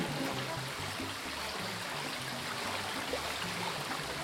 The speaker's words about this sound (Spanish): El lugar donde vivo es verde, mucho verde hay un río cerca, como a 15 metros de la casa, me encanta el sonido del río.